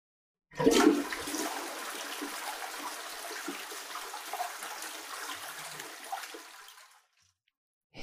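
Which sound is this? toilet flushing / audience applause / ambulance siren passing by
toilet flushing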